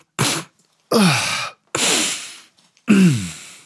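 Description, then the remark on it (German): A voice imitates heavy breathing: four loud, rasping breaths, each about half a second long with short pauses between, some carrying a groaning, voiced edge. “aber auch so ja. schwer atmen die ganze Zeit.”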